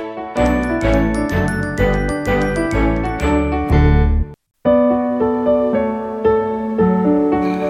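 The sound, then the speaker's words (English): A bright, tinkling instrumental jingle with a steady rhythmic pulse plays loudly and alone, breaks off for a brief silence midway, then resumes with a softer, sustained melody. It is the intro music of the Book Lover Show, made by a musician. “And I want to thank … for that beautiful music just hearing there.”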